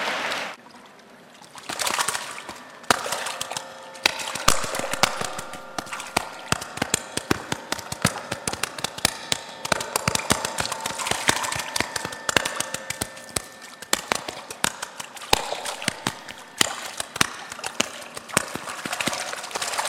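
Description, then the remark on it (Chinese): A foley artist's imitation of ocean waves made with a prop, performed on stage at the Yixi forum: a steady, hissing wash made of countless tiny rattling clicks that swells and eases unevenly, sustained throughout with no voices. “我这个声音的魔术师在一席的论坛上，我要今天首先给大家带来的是大海的声音。”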